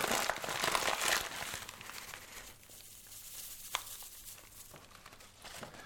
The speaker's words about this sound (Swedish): Nästa steg, öppna påse och eh, häll ut innehåll. Alltså kappasopp, knorr, buljong.